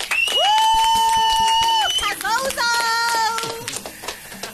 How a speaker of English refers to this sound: Can we please do have a round of applause?